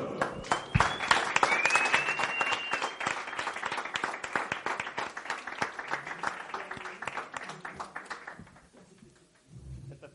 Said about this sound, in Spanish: ¡Un fuerte aplauso!